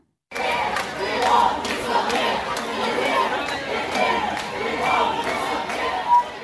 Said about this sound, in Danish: Altså, der er jo sådan set god øh, paradestemning, kan man høre i, i klippet her.